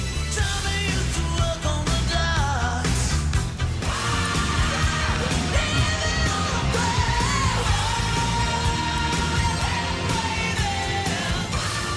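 A loud rock song plays continuously, with a strained, shouting lead vocal riding over dense, driving guitars and pounding drums. No one talks over the music.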